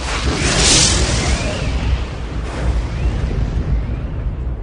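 A loud, sustained rumble of thunder, deep and rolling with a sharp crackling burst near the start, then a steady heavy roar that slowly eases off, with no voices.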